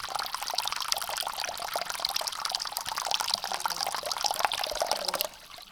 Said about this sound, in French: Sautant au fond de la baignoire, il y place la bonde pour que l'eau ne s'échappe pas. Puis il ouvre le robinet. Ni trop chaude, ni trop froide.